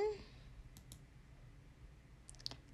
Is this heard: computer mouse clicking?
yes